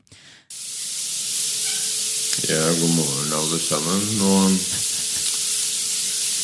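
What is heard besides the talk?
shower water running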